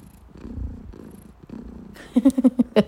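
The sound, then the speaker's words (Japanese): A cat named Mi-chan purrs loudly in a steady, rumbling rhythm of in-and-out breaths for about two seconds, then louder, sharper pulsing tones take over at the end. “ちょっとみーちゃんがめっちゃぐるぐる言うてるね。”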